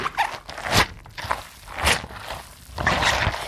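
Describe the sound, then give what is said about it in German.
Wet, squishy squelching from cabbage being kneaded and squeezed by hand to make sauerkraut, releasing juice and water, arriving in a loose rhythm of about five crunchy bursts with no talking. “Also das gatscht schon ziemlich schön.”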